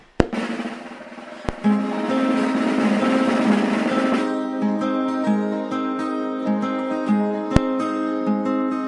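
A recorded song plays on its own at a steady, fairly loud level, a full instrumental arrangement opening busy and bright before settling into sustained tones with a few sharp accent hits.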